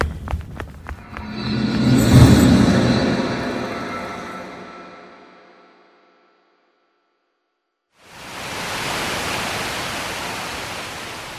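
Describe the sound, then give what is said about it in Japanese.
A loud, resonant swell fades away into two seconds of silence, then the steady, continuous roar of the large Reichenbach Falls waterfall rushes in and holds, broad and unbroken, with no voices. “急いで戻らなければ彼らはライヘンバッハの滝にいる”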